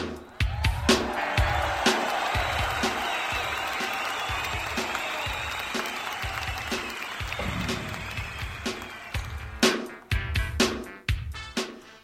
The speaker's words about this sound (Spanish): también mandamos un agradecimiento a todo el equipo del área de producción radiofónica de CucuTV que hacen posible la transmisión, la realización y todo lo que se requiere de este programa y para todos ellos, público conocedor. Fuerte el aplauso.